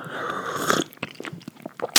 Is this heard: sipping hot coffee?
yes